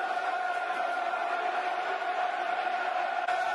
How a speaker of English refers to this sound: You can hear what the Mill crowd are making of that.